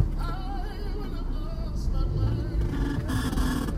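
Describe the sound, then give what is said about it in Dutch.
Steady low rumble of a moving car's interior, with faint squeaky creaks rising and falling over the engine and road noise; no one speaks. “Je hoort ook een beetje gekraak, want ja, het is nou eenmaal met auto's soms.”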